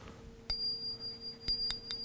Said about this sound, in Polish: Mm, jeżeli już mówiliśmy o dźwięku, ta moneta wydobywa piękny dźwięk y, i naj, najładniej ją słychać, więc y, może zabrzęczę